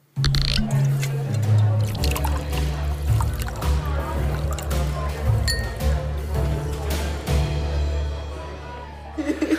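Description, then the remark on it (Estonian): Coffee pours steadily for several seconds in a studio, with light clinks of cups or cutlery and a low continuous hum and faint voices in the background. “ma ütlen ühe korra veel, me hakkame nüüd kohvi jooma ja me hakkame kohvi jooma niimoodi, et äh, me ei hakka mitte ise omale kohvi tegema, vaid me oleme kutsunud stuudiosse professionaalid, ega me ei ole lihtsad inimesed siin niisama, et kohvi juua.”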